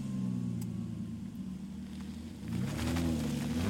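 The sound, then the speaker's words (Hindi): A car engine rumbles steadily, then revs louder and higher partway through as the car is started and driven off toward home. No voices. “नवीन इन सब बातों को परे रखते हुए गाड़ी स्टार्ट करके अपने घर की ओर जाने लगा”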